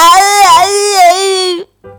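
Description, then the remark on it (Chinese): A child cries in one loud, drawn-out wail that wavers in pitch for over a second, breaks off briefly, then starts again with a fainter sob. “这时，不知从哪儿传来了哭声。”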